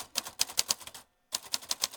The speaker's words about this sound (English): Group of friends, writers who take our vintage manual typewriters and we type poems on request for anyone who comes up and asks us for a poem.